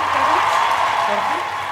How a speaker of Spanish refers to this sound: Ahí viene una ovación.